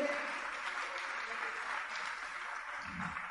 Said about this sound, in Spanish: Amén, amén. Un fuerte aplauso para el Señor.